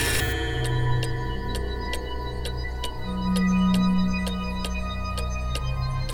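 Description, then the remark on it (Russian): A cuckoo clock ticks steadily, about twice a second, its crisp ticks sitting over a low, sustained droning hum with no voices. “Часики я... тикают”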